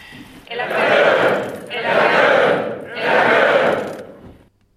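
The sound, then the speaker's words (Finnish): A crowd shouts three loud, rising cheers in succession, each a sustained roar of many voices lasting about a second, separated by short pauses before fading to quiet: a traditional Finnish triple "eläköön" hurrah for the fatherland, closing a ceremony attended by members of parliament and invited guests. “Hyvät edustajakollegat, arvoisat kutsuvieraat, vanhaa perinteikettä tapaa noudattaen päätämme tämän tilaisuuden kolminkertaiseen eläköön huutoon isänmaalle.”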